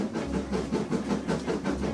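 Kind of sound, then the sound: vehicle, train running on rails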